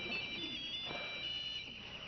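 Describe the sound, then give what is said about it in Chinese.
A mobile phone rings with a steady, high electronic tone that warbles slightly and holds for about two seconds. The ringing is fairly quiet, with no voices over it. “你赶快找你的大哥大了，我来处理。”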